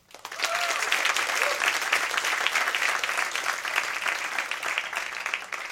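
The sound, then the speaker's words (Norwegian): Steady, dense applause from an audience at Postkontoret, welcoming an author and journalist who wrote a book on town characters. A broad crackling wash of many hands clapping at once holds at an even, loud level for several seconds without anyone speaking. “En stor applaus til mannen som har skrevet bok om dette, forfatter og journalist Even Saugstad.”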